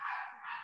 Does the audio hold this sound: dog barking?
yes